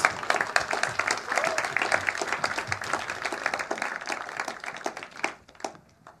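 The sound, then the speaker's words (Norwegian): A church audience at Frikirka applauds the worship music steadily, a dense wash of many hands clapping at a fairly loud level, thinning out and fading in the last second. “Gi den fantastiske lovsangen god applaus.”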